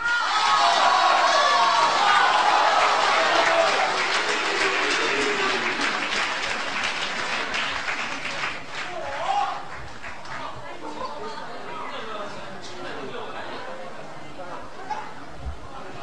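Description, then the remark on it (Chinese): Loud, dense applause from a large audience with cheering and shouts, welcoming sixty crosstalk performers onto the stage at the Spring Festival Gala, strongest at the start and gradually thinning into scattered clapping and crowd murmur. “我们用最热烈的掌声邀请我们的六十位演员与大家见面，有请。”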